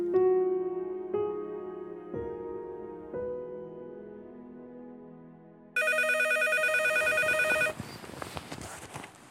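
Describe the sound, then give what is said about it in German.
A telephone rings with a repeating melodic tone, four evenly spaced bursts, then a sudden, harsh, buzzing electronic ring takes over, loud, with no voices. “Ein schrilles Klingeln riss ihn am nächsten Morgen aus wirren Träumen. Dass es das Telefon war, merkte er erst, als sein Wecker beim Versuch, ihn zum Schweigen zu bringen, zu Bruch gegangen war.”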